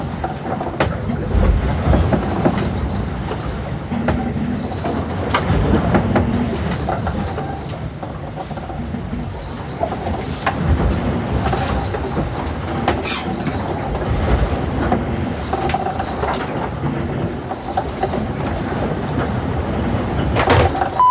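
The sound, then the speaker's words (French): Waves pounding the bow of the ship Tara in heavy weather near the southern tip of South America, heard from inside a large echoing room at the front of the ship: a steady, loud, deep rumble with scattered hollow thuds and metallic knocks throughout, no voices. “plus de gros temps, qu'on se rapproche de la pointe sud de l'Amérique du Sud pour venir enregistrer ici parce qu'on est vraiment à l'avant du bateau au contact euh, des vagues et c'est une pièce euh, assez grande qui résonne beaucoup va écouter ça.”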